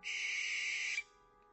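An owl hunting at night gives a single harsh, raspy screech lasting about a second, loud, then cuts off abruptly into near silence.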